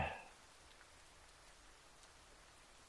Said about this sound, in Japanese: 同棲してから初めてだよな。休日の雨って。